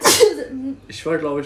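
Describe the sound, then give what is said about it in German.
A sharp, loud sneeze bursts out right at the start, followed by a short laugh and then a person speaking. “Gesundheit, genau.”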